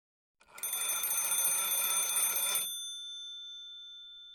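An old-style telephone bell rings loudly in one continuous, rattling burst of about two seconds, then its metallic tone hangs and fades slowly. No voices are present.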